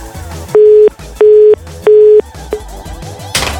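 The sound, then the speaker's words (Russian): A telephone busy signal: three loud, steady low beeps of equal length, evenly spaced with short gaps, then a brief cut-off fourth tone over faint background noise. “просто на мобильных телефонах не бывает гудков занято”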